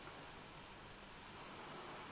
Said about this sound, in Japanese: まあ、波の音が入るようにわざわざ窓を開けてやってますからね